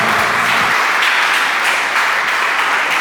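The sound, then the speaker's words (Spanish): A church audience breaks into steady, dense applause for the Lord, many hands clapping at once in a loud, continuous wash of sound with no voices heard over it. “Y la iglesia dice, dale un aplauso al Señor.”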